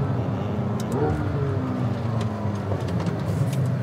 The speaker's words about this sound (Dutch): Maar misschien moet ik gewoon nog één keer launch control doen. Dan ga ik even keren hier op het afgesloten circuit. Dat kan hier gewoon.